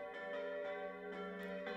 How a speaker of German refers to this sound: Und sie gab dem Dorf den Namen, zusammen mit der Kirche, von der ein dreistimmiges Geläut in die Hallertau hinausklingt.